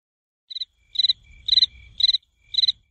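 A cricket chirps in five quick, evenly spaced bursts, each a rapid trill of pulses, clear, with a faint low rumble beneath.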